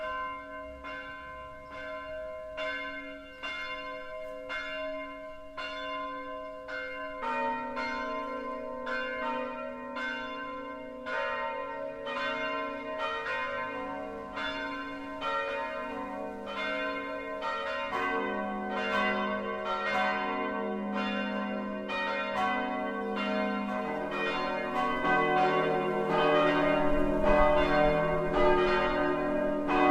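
The four church bells of the Evangelical Lutheran Christ Church in Partenstein, Lower Franconia, ring out from its tower in a steady twelve o'clock midday peal, one bell striking alone at first before others join into a dense, overlapping chime that grows fuller and louder, with no voices.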